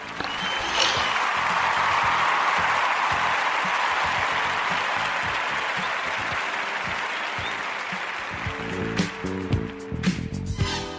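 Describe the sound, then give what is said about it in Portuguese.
On the Quarentena Show, a crowd claps steadily for about nine seconds after a worst-film prize goes to Caçadores de Obras Primas. It is a dense, loud wash of applause that thins out near the end, where a few sharper knocks and clatters poke through. “Palmas para eles.”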